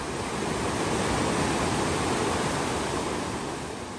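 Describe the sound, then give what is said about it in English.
A crystal clear river flowing through forest around Las Nubes rushes steadily, a dense, unbroken wash of sound with no pauses and no voices. “We also had a couple of chances to check out the crystal clear rivers which run through the forests in and around Las Nubes.”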